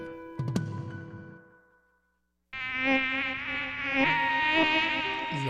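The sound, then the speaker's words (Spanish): A brief sharp tonal sound fades out, then after a pause a loud mosquito whine drones continuously with a wavering, slightly shifting pitch until the end. “los mosquitos pican, molestan.”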